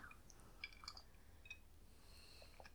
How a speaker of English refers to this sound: okay, so I'm gonna take a nice long sip of my uh, drink here